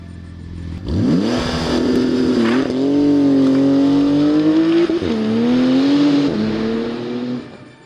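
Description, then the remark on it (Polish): A Maserati GranTurismo sports car engine roars to life and revs hard, its pitch climbing and dipping through a few throttle blips before settling into a loud, sustained growl. “Maserati Gran Turismo. No, samochód, którym chciałoby się pojeździć.”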